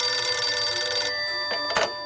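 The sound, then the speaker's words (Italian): A telephone bell rings loudly and steadily with a bright metallic tone, then pauses briefly before a short second burst. No voices are heard. “Un giorno, un pomeriggio, che ovviamente non dimentico, ha squillato il telefono e una voce mi dice...”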